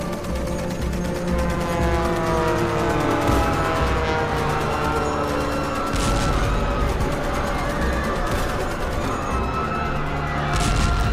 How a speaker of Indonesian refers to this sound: Pukul 7.55, pembom Tukikval menghujani pangkalan udara Angkatan Darat Hikam dengan bom. Satu bom menimpa pesawat B-80 dan menewaskan 22 orang. Hanggar pun terbakar.